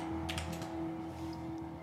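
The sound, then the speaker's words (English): A quick cluster of small hard clicks and clatters as dice are rolled, rattling for about half a second over a steady low electrical hum, then settling into quiet. “Um, so let me roll some dice.”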